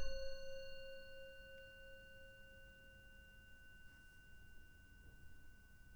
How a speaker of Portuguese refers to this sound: Permanecendo assim, até ouvir o sino tocando, sinalizando o fim da prática.